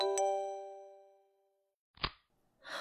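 A mobile phone rings in a crowded amusement park square with one bright, bell-like electronic tone that rings out and slowly fades over about a second and a half, followed by two short, soft rustling bursts.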